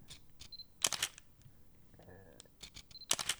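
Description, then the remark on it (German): An analog film camera's autofocus whirs briefly, then two crisp shutter-and-advance clatters fire, followed after a pause by another whir and a second burst of mechanical clicks, fairly loud with no talking. “Die Kamera hat einen Autofokus.”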